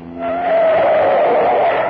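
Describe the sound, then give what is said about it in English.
A car fleeing a pursuing police car tears around a corner with a loud, sustained tire squeal over a revving engine, the screech building after a brief start and holding steady for about two seconds, intense. “Hold oh, tight on the corner.”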